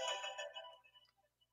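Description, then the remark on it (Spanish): A phone alarm chimes with a bright, multi-tone electronic melody that rings out at first, then fades over about a second into a few soft, scattered blips. No one speaks. “No te digo, soy llena de alarmas.”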